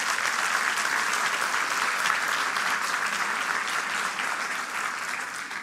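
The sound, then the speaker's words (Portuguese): A crowd claps steadily for several seconds, a dense, even wash of applause that holds a constant loudness throughout with no voices standing out, applauding a man being called up. “Se você puder dar uma salva de palmas a esse grande homem de Deus,”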